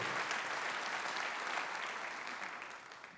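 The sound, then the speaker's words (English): An audience applauds steadily, a dense wash of many hands clapping that holds at an even level and begins to fade slightly toward the end, with no talking over it. “Can we put our hands together?”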